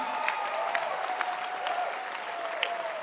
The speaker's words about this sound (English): Let your hand clap be ascending.